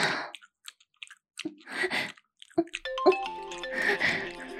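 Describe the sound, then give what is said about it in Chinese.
A mother's mobile phone rings with a short melodic ringtone of bright stepped tones, starting partway through and continuing to the end, after a run of soft wet clicking and smacking noises. “哎，妈妈的手机响了，哎，儿子，你先停一下，妈妈接个电话好不好啊？”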